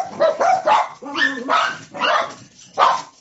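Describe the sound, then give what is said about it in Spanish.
Several dogs bark at a noise heard outside, in quick, overlapping bursts, loud, with a few sharper yips mixed in across a few seconds. “Perdón por esa interrupción de estos niños hermosos escucharon un ruido afuera y ellos pues tienen que responder.”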